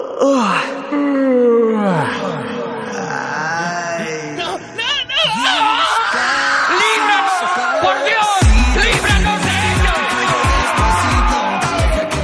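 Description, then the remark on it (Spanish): Several people yawn loudly, their long drawn-out moaning breaths overlapping one after another in a continuous chorus, growing denser and busier toward the end. “Así que viva el bostezo masivo. No se corten y que comience la epidemia.”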